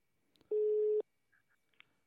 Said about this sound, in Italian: Gli squilli a me mi angosciano. Squilla anche alto.